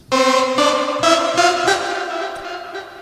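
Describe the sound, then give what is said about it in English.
A bright, buzzy formant synth lead, the Formant Gadget preset in Massive, used as a chorus lead, plays a short phrase of about six smoothly connected notes, loud and alone, its vowel-like tone thinning slightly toward the end. “I found an interesting sound that sounds a bit like something … might use. It's called Formant Gadget”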